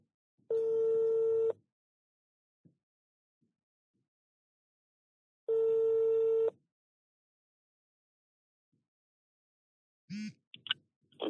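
Two long, steady telephone ringback tones, each lasting about a second, separated by a pause of several seconds, as a radio program's phone call connects to a guest, followed by a brief burst of a voice answering at the end.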